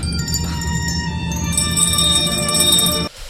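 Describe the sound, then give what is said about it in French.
Bells ring continuously with bright, sustained metallic tones layered over one another, fairly loud, before cutting off abruptly near the end. No one speaks. “Là, je vous vois mal vous balader dans la rue avec vos cloches, votre table à roulettes et votre sono en hurlant Mademoiselle.”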